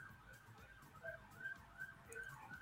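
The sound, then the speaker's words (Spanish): An ambulance siren wails from outside as it passes, its rising and falling tone repeating steadily over a low background rumble, with no one talking. “Ay, qué miedo, neta, con las ambulancias.”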